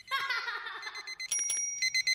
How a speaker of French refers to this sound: J'étais juste en train de rêver. Je me suis réveillé lorsque le réveil a sonné pour de vrai.